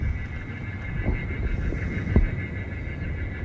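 Recorded bird distress calls blare from a loudspeaker outdoors at an airfield to scare away the many birds on the field, a few harsh, shrieking bursts over a steady low rumble and a faint high whine, with no one talking.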